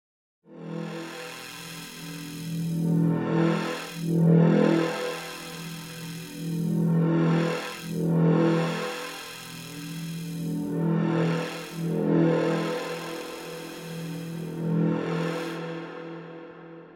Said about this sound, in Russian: А сейчас будет, так сказать, бит от ежовика.